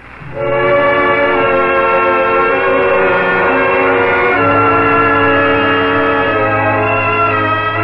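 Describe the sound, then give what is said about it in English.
A train bound for Philadelphia runs along the rails at night, loud, with a steady horn-like chord droning over the rumble for several seconds and no voices. “Will this train take you all the way to Washington?”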